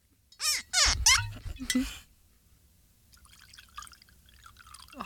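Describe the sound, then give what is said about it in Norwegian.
Liquor glugs from a large Jäger bottle into a held cup, a few loud gurgling bursts over two seconds, followed by a quieter trickle and faint clinks as the pour finishes. “Det var en stor Jegerflaske. Skal du holde koppen?”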